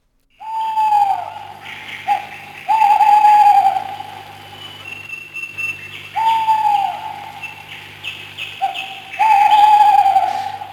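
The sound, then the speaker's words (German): An eagle owl hoots in several drawn-out, tonal phrases, loud, while other birds chirp and twitter faintly in the background throughout. “äh, das mit dem Uhu habe ich schon gewusst, aber man hört ja im Hintergrund noch mehr, noch mehr Vögel.”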